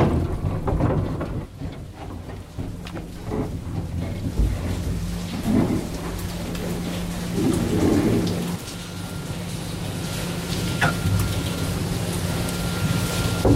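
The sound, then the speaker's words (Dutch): A mine lift descends hundreds of meters into a mine in eastern Ukraine, reaching 320 meters underground within about five minutes, with a continuous, loud rattling rumble and a steady low mechanical hum, broken by occasional clanks and knocks. No one speaks. “Het geluid van de lift die naar beneden zakken.”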